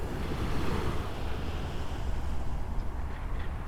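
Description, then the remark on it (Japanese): Steady ocean surf washes continuously onto a beach on the Shonan coast in Japan in the morning, a broad rushing roar with wind buffeting the microphone throughout; no voices, just the constant wash of waves. “波の音をお届けします”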